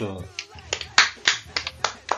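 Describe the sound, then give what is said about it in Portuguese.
A brief spoken phrase gives way to a steady run of about seven sharp, bright hand claps, evenly spaced and fairly loud. “Olha que só, bonito. Palmas.”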